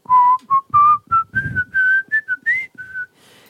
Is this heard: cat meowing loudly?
no